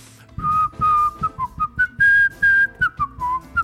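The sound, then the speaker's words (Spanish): Someone whistles a short, catchy commercial jingle, a run of bright rhythmic notes rising and falling in pitch, clear and fairly loud with no talking. “De hecho, los comerciales, güey, que es donde ponen música con chifliditos, siempre me enojo.”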